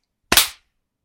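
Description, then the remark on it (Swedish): A single sharp, loud hand clap with a slightly doubled attack and a short ringing decay, standing alone against silence. “Ska vi klappa?”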